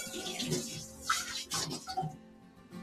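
Tap water runs steadily while a used pot is washed, with a few light clanks and scrapes of metal breaking through the rushing splash.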